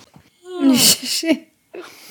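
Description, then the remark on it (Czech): A single long, drawn-out yawn from a woman, with a voiced, moaning quality and a breathy rush of air, followed by a brief quiet pause and a faint breathy sound. “Mě by zajímalo, co jsi mi teď dala najevo s tím nonverbálním gestem, že jsi zívla, že jsem viděla tvoje mandle.”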